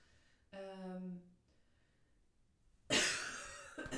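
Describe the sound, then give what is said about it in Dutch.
A strained, throaty vocal sound gives way to a loud burst of harsh, spluttering coughing as someone chokes on something. No one speaks. “ik moest al de hele tijd een beetje hoesten.”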